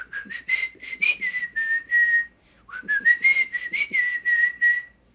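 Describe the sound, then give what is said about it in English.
A person whistles a melodic tune, the clear pitched notes rising and falling in two phrases separated by a brief pause, with soft breathy accents and no talking. “You're gonna ask me to whistle? Uh, sure.”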